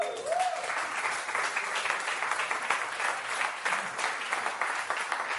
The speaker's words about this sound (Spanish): es porque hoy tenemos bautizos. Sí, regalan un aplauso.